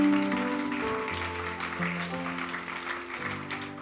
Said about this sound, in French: Est-ce que vous avez aimé la louange ce matin? Est-ce qu'on peut donner une bonne main d'applaudissement à ces gens qui travaillent tellement fort?